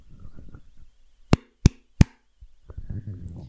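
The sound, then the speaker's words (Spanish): Three sharp hand claps in quick succession, made at the start of a recording, loud and crisp, with soft murmuring and faint movement sounds before and after. “Voy a aplaudir una sola vez.”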